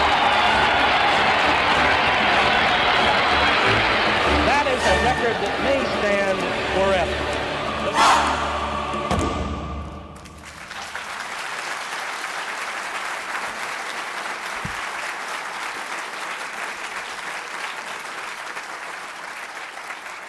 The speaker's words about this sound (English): Secretariat by 14 lengths on the turn. McTerrott is all alone. He's out there almost a sixteenth of a mile away from the rest of the horses. Listen to the crowd. Listen.